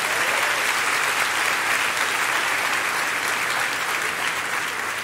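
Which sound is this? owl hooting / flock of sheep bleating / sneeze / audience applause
audience applause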